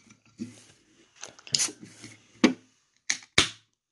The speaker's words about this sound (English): I'm going to crack a beer.